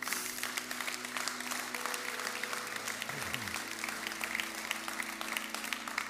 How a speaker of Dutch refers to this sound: In Jezus' naam, amen. Amen. Laten we God een applaus geven.